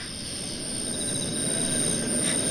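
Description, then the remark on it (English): A drone's steady motor whine and rushing hum stay close throughout, growing slightly louder over a couple of seconds, with no voices. “The drone is right behind you!”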